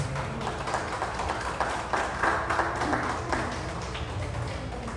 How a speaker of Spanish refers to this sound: Amén. Otro aplauso a Dios. Y tú que nos estás escuchando también ahí, dale un aplauso a Dios, dale un aplauso a Dios.